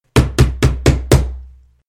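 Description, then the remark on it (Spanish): Five loud, evenly spaced knocks thump against a wall in quick succession, each a sharp hollow impact with a brief low ring, and no voices. “pegándole a las paredes.”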